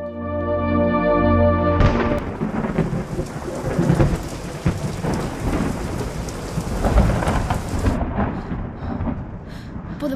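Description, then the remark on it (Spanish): A brief sustained musical tone gives way to a steady downpour of heavy rain in a forest, with deep rolling thunder rumbling loudly through the storm. “¿Y qué hacen tres chavales de 12 años cuando se encuentran a una chica sola en el bosque que no dice ni una palabra un día de tormenta?”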